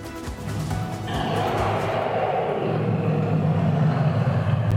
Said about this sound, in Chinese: 隆隆的怒吼声中，暴龙张开血盆大口，让人一秒回到恐龙时代。